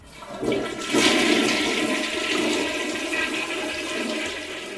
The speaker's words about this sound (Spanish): El primero es la taza sanitaria, en la cual las personas de manera cómoda e higiénica depositan sus excrementos y orines, que son arrastrados por medio de agua y se descargan manualmente.